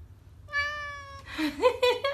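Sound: cat meowing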